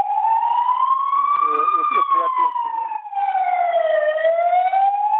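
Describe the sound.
A loud emergency vehicle siren wails continuously, its pitch slowly rising and falling, close by and overpowering a faint voice talking underneath.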